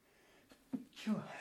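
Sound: sneeze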